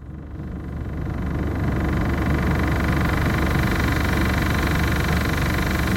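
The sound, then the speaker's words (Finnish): A refrigerator hums steadily and loudly, a low, heavy mechanical drone that swells up in the first second and then runs on without a break, with no voices. “Mutta kuunnellaan tämä ääni, okay. mitä te- tekee siis välillä ja välillä stop. Sun jääkaappi siis?”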